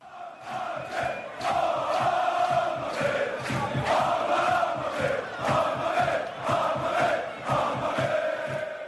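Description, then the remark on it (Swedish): A large crowd of Hammarby football supporters sings the Hammarby club song, taken from Verdi's Aida, in unison: a loud, sustained chorus of many voices carrying a steady melody with rhythmic swells for the whole stretch. “vi jämför det här med den otroligt fina Hammarby-sången.”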